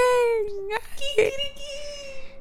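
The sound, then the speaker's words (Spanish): A rooster crows in a long, strained call, drawn out over about two seconds with a brief break partway through, fairly loud. “Y ese gallo, tú lo escuchas y le está...”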